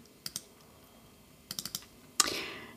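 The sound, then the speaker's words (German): Crisp computer mouse clicks in the Microsoft Outlook settings window, clicking on Notifications and Sounds: a quick pair, a pause, then a rapid run of four, ending with one sharper, louder click that trails off briefly. No one speaks. “So, und dann nutze ich natürlich auch noch Microsoft Outlook und auch hier klickst du auf Outlook, dann klickst du auf Einstellungen, dann öffnet sich dieses Fenster und wenn wir jetzt hier auf Benachrichtigungen und Sounds klicken”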